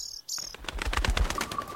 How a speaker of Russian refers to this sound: Птичка залетела в комнату и посмотрела на нас. Наверное, мы выглядели очень несчастными, потому что птичка, печально покачав хвостом, вылетела обратно в окно.